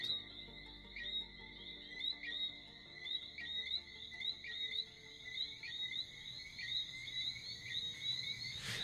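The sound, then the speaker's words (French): A steady chorus of whistling frogs at night in the gardens of the habitation Saint-Charles estate in Guadeloupe, high, clear chirping whistles repeating in overlapping rhythmic bursts, with softer insect trilling and a faint low rumble beneath; no voices. “Je le rencontre dans les jardins de l'habitation Saint-Charles pour un entretien à la bougie et au son des grenouilles sifflantes.”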